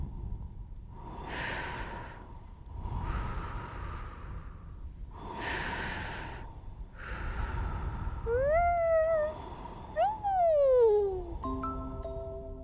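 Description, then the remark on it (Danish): Air is drawn in sharply through the nose in four long, breathy sniffs, one after another, followed by sliding electronic tones and whooshes. “Der er fart på, når luften bliver suget op i næsen.”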